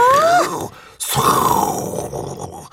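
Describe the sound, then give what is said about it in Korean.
A voice imitates a loud urine stream of a man urinating into a toilet, starting with a brief strained vocal groan, then breaking into a forceful, sustained hissing rush that lasts nearly two seconds. “아무튼, 어, 뭐 거의 폭포 소리 아니야, 이 정도면?”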